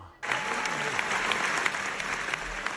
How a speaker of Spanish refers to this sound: Ha reaparecido en una película que es The Whale y se llevó esta ovación.